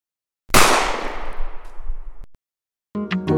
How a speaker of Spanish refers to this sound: Una hora y media después, un disparo a quemarropa directo en la cabeza.